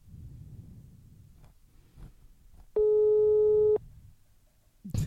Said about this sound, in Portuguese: Ela tá chamando, gente.